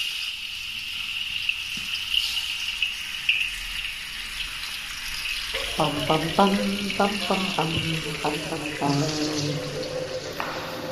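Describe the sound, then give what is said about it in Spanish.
Water runs steadily from a kitchen tap in a continuous hiss, and partway through a voice starts talking over the flow. “Por eso le pedimos a amigos y familia que nos enseñaran cómo suenan sus cocinas ahora”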